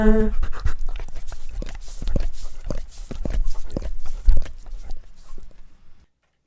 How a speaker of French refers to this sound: Euh, avec des bruits de chiens.